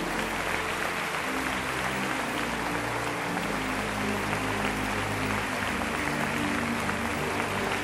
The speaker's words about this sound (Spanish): Demos un aplauso al rey, aleluya.